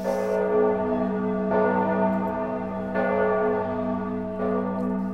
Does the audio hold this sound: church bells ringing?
yes